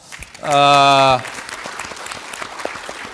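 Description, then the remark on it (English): A short, loud buzzing tone is followed by an audience applauding during a speech on Asian economic growth: many hands clapping in a dense, steady patter that carries on at a moderate level until the end. “That's, I think that needs an applause”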